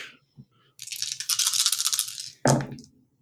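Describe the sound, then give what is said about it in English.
Dice rattle steadily in a cup or hand for over a second, then land with a sharp clatter that quickly fades, rolled as a dodge pool during a game. No one speaks. “Okay, so we're just rolling our dodge pool.”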